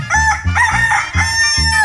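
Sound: rooster crowing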